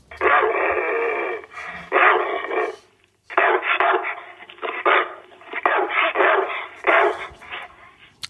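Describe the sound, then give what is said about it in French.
A dog named Canel barks and yips in agitated, rapid bursts, loud, pausing briefly after a few seconds before starting up again. The sound is thin and muffled, with no one talking. “Elle n'a pas l'air contente. Ah non, non, non, elle en a gros sur la patate, Canel, parce qu'elle nous dit qu'elle adore les films d'action.”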